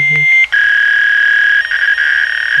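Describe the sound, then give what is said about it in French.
Fax machine handshake tones, as heard when picking up the telephone: a few quick electronic chirps and a low buzz, then a loud, steady high-pitched whine that holds with slight warbles until the end. “Pour ceux qui ne savent pas c'est quoi les fax, on va peut-être juste mettre un petit bruit, là, ça va vous rappeler quelque chose.”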